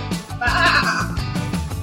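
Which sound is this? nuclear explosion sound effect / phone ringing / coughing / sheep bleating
sheep bleating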